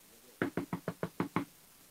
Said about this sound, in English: Why are you knocking so loud? Be careful, you know, you're going to break down my door.